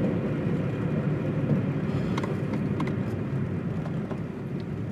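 A car's engine rumbles steadily with a low, broad roar as it drives away to work, the sound easing off only slightly toward the end. No voices are heard.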